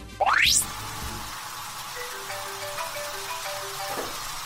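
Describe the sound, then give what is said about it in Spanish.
A shower runs in a bathroom with a steady, even hiss of spraying water, opened by a brief rising whistle-like sweep at the start. No one speaks. “Estoy escuchando la ducha, no me mintas.”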